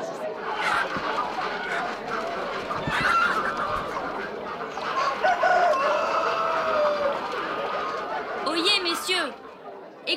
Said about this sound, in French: Écoutez, volailles, Parlez Nous vous écoutons avec la plus grande attention.